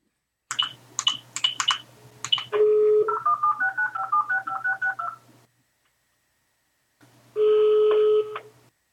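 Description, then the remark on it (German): A rapid series of short telephone keypad tones as a number is dialed for a phone call from Berlin to Hamburg, followed by a steady line tone, a pause of silence, then another tone like a ringback, clear. “Also, lass mal, lass mal ein Telefonat machen, Berlin-Hamburg.”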